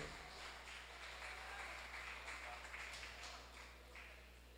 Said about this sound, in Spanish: Si es para el Señor, déselo fuerte ese aplauso.